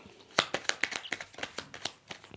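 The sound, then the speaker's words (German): Playing cards being shuffled, a quick run of crisp, papery flicks and taps in an uneven rhythm, fairly quiet and heard on their own without talking. “So, ich mische wieder die Karten, denn damit kommen wir auch zur dritten Frage und das ist auch die letzte Frage.”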